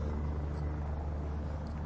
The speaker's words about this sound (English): I think that's either uh, it's the helicopter that reports on the traffic in the morning.